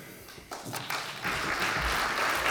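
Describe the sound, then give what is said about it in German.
Audience applause at an evening talk event, as a speaker is called to the podium for the first input, starts scattered and builds within the first second into steady, dense clapping from many hands, holding at a fairly even loudness to the end. “Applaus”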